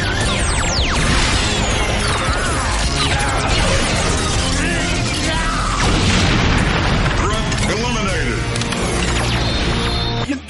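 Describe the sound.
Loud, booming explosion effects as Robo Knight's Vulcan Cannon destroys the giant monster in Power Rangers fill the whole stretch, layered with rushing whooshes, rising sweeps and mechanical clatter in a dense, chaotic mix, with voices buried underneath.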